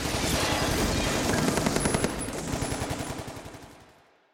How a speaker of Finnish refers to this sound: Räjähdysten aiheuttamat efektit pölypilvineen ovat ulottuneet heihin asti tuumaan, että tästä voi tulla palautetta.